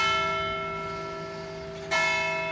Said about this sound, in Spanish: Ya me habías tocado la campana.